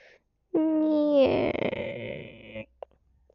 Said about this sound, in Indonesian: Suara pintu kamarku yang nampaknya perlu diberi pelumas.